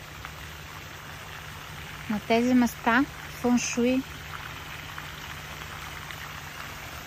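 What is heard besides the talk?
flowing water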